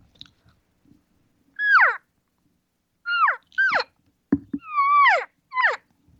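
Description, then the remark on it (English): A call imitating an elk's social call: five short, high mewing squeals that slide downward, delivered close and fairly loud in quick groups, with a sharp click between them and no talking. “But here's social cal call right here.”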